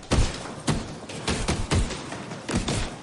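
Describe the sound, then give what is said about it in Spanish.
Boxing gloves pound a boxing training bag hard in a gym, a loose, uneven series of about seven dull, heavy thuds, with a steady rushing background noise between hits and no voices. “Con los guantes puestos golpea con fuerza en un saco de entrenamiento de boxeo.”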